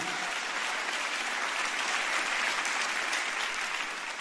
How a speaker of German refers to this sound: Wir geben Ihnen nochmal einen richtigen Applaus.